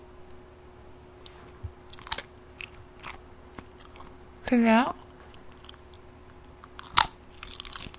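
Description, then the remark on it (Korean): Someone bites into and chews springy, chewy food, producing scattered soft, wet clicks and squishes, with a brief spoken question in the middle and one sharper crunchy snap near the end. “완전 쫄깃쫄깃한 소리 들죠? 탱탱한 소리.”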